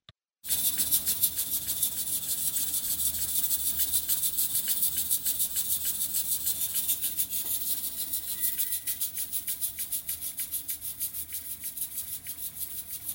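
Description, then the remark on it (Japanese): An old-type pressure cooker on a gas stove, cooking pork spare ribs at 5 p.m. on Saturday, January 20: its weight, rocked by the steam, rattles rapidly and steadily over a loud, bright hiss of escaping steam, a continuous jiggling that carries on without pause. “圧力鍋で豚のスペアリブを作っている音ですあ圧力鍋ってこういう音するんだはいはいはい重りが蒸気で揺れる古いタイプの圧力鍋で母から譲ってもらったものを未だに愛用していますガスコンロのタイマーが切れて徐々に重りが静かになる音で”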